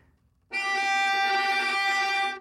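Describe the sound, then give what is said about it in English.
A single sustained note on a viola, bowed near the bridge to change its timbre, starts abruptly and holds steady for about two seconds, bright and glassy with many strong overtones, played fairly loud with no talking. “Now we can change the timbre if you move towards the bridge.”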